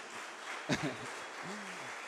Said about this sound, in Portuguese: Vamos aplaudir Jesus para recompor aí, gente.